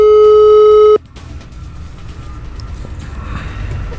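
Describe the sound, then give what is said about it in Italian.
A single loud, steady telephone ringing tone of an outgoing phone call lasts about a second, then cuts off abruptly to a low, continuous line hiss and faint background noise, with no voices. “L'abbiamo cercato e l'abbiamo trovato e questa è la telefonica.”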